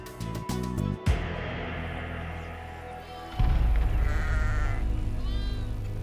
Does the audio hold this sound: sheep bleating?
yes